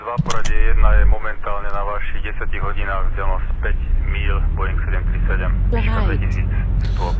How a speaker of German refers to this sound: So, da läuft unser Flugzeug wieder. Ich habe die Tasten beide gleichzeitig gedrückt. Auch das geht und dann startet das Flugzeug umgehend beide Triebwerke.